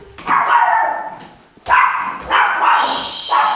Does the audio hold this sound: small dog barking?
yes